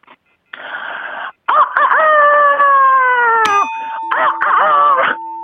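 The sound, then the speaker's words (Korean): A person performs a rooster-crowing imitation as a prepared act in a contest, loud: a short breathy burst, then a long strained call that slides downward, followed by a steady electronic tone and a few more voiced bursts. “예, 우선 첫 번째는 닭 소리를 준비했습니다.”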